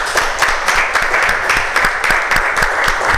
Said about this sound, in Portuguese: Aplauda bem forte o Senhor